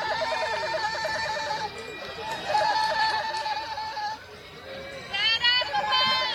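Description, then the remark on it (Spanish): Goats let loose in Riverside Park in New York bleat over and over in shaky, wavering cries, fairly loud, with a murmur of many people talking in the background. “Y un montón de cabras, güey, ahí sueltas.”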